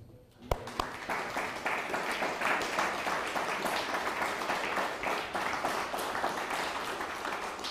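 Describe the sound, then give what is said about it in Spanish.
A crowd breaks into sustained applause, many hands clapping in a dense, steady wash that starts with a sharp first clap and holds at a fairly loud, even level throughout. “Un fuerte aplauso.”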